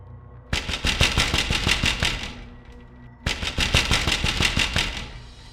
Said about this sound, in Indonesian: ada suara ketukan pintu kaca dari arah luar. Delapan orang yang mendengar suara ketukan pintu itu seketika memalingkan pandangan mereka dan bergegas keluar